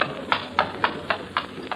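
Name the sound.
horse-drawn carriage hooves clip-clopping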